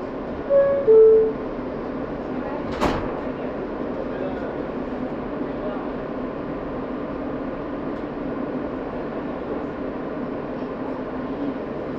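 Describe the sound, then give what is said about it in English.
A Brooklyn-bound F local subway train rumbles steadily through a tunnel toward Broadway-Lafayette Street, a continuous low roar and hum from start to finish, with one brief sharp clank near the beginning and a couple of short tones early on. “This is a Brooklyn-bound F local train.”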